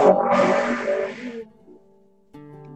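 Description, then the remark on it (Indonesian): A racing motorbike engine, Rossi's, revs loudly, a harsh roar that drops away after about a second and a half, followed by a steadier, quieter droning tone. “Ada dengar Rossi tadi.”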